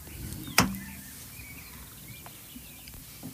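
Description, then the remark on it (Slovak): Faint, thin bird chirps drift through a quiet, hissy phone line, heard in the earpiece of a telephone handset, following a single sharp click near the start. No one speaks. “Vtáky počujem v slúchatkách zase.”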